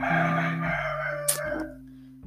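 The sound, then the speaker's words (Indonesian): A rooster crows once, loud, a long drawn-out call that wavers and then cuts off, with no voices over it. “ayam cowok”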